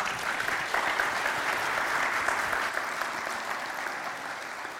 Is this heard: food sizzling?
no